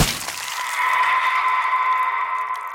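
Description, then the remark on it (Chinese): A glass sliding door at a station suddenly slams shut with a sharp, cracking impact, followed by a bright, steady glassy ringing that lingers for over two seconds. No one speaks. “那扇玻璃躺门突然关上，速度之快，让人猝不及防。”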